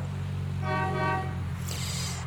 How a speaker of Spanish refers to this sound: Al tocar la bocina una y otra vez, el conductor que se hallaba antes de nosotros paró su motor se bajó de su automóvil con parsimonia y caminó lentamente hacia nosotros.